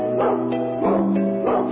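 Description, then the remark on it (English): A dog barks in a steady rhythm, three drawn-out, harmonic woofs spaced evenly and set to music in a novelty jingle recording, loud, with no talking. “The dog sounds kind of evil.”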